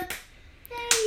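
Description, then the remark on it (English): Two sharp hand claps about a second apart by a young girl at home, the second followed by a thin, sustained sung-sounding tone as she sings. Otherwise quiet between the claps. “I don't know if you guys can hear her in the background, but she's back to her old self singing and clapping around and just being her old self.”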